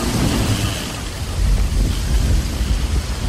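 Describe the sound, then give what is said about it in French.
Heavy, roaring wind buffets continuously with deep low rumbling underneath, like a storm in the Pacific Ocean striking the sailors of the ship Trinidad, with thunder rolling, loud and unbroken for the whole stretch. “Mais ils meurent dans le Pacifique, tempête.”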